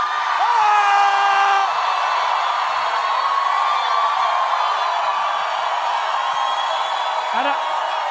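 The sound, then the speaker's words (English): A large crowd at the Reawaken America event in Miami cheers loudly and steadily as General Flynn takes a phone call from Trump on stage, with individual whoops and yells rising above the roar near the start and again toward the end. “This place is going crazy.”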